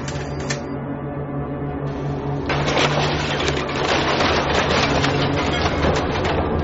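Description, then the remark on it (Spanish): A heavy excavator engine drones steadily, then a loud, sustained crunching and clattering takes over as the excavator tears down the last shack of the Penamoa shanty settlement in A Coruña, continuing to the end. “Estamos escuchando el momento en que una excavadora derriba la última chabola del poblado de Penamoa, en La Coruña.”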